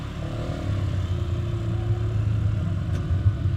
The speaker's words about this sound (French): Ah ouais, c'est mon, scooter, donc euh, mon nouveau scooter. On va voir. Je, viens de l'avoir, je viens de l'acheter, et son, prédécesseur était un grand homme qui m'a bien connu. allez, on y va.